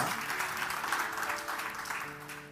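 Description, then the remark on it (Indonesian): Steady applause from a crowd fills the whole stretch, a dense wash of many hands clapping at an even level, with faint sustained tones lingering underneath. “Mari berikan tepuk”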